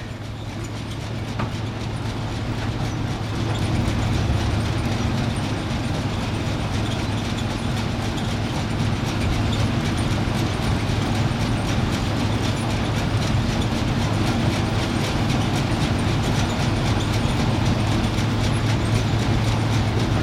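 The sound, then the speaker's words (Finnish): A water-powered frame saw runs steadily, its rapid rhythmic clatter and knocking riding over a deep mechanical rumble, growing slightly louder after the first few seconds, with no voices. “Tämä on vesisahana raamin sahausääntä.”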